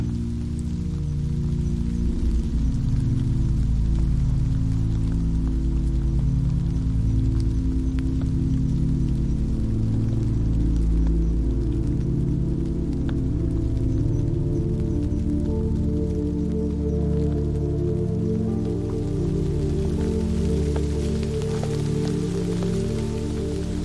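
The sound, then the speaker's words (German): Steady summer rain patters on the leaves of trees and on streets throughout, with scattered drops tapping over a soft, low humming drone; no one speaks. “Du wanderst weiter und hörst das beruhigende Plätschern des Regens auf den Blättern der Bäume und auf den Straßen.”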